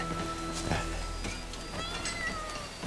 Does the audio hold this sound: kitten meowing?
yes